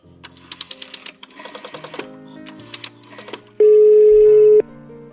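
A quick run of electronic phone beeps and clicks, as if a number is being dialed, followed by a loud, steady ringing tone lasting about a second. No one speaks.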